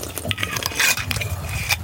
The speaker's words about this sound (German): Das Schlürfen höre ich ja bis hierher. Was ein Profi.